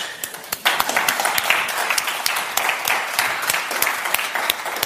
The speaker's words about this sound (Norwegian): Og det er en eh, stor glede å kunne presentere kveldens panel. Kan vi klappe?